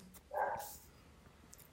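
A single short dog bark sounds from somewhere in the background, fairly faint and muffled, followed by quiet room noise with no one talking.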